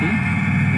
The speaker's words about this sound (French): Donc là, bon, il y a le démarrage de la voiture, les portes ouvertes, la radio.